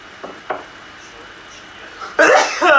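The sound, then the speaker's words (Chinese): A couple of faint sharp inhales lead into a quiet pause, then a loud, explosive sneeze bursts out near the end, followed by a second voiced, breathy burst. “稍等，我打个喷嚏啊。”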